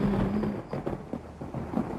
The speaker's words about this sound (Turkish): Aa, Yağmur yeniden başladı. Islanacağız.